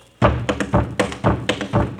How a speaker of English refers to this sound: I can't dance it without a tom tom. Oh, that's easy fixed. Here, I'll drum on the radio, Captain.